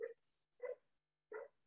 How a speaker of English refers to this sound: And again, oh, sorry about my dog barking in the background.